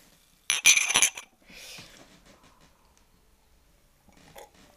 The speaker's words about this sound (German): Ich schlage vor, dass wir jetzt erstmal mit 100 Gramm Champagner anstoßen.